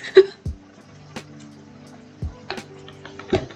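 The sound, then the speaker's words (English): A person drinks water: a few soft, low gulps at slow, irregular intervals, with small wet clicks of the mouth and throat in between. No one speaks. “Let me just get a quick water break because my throat is so dry.”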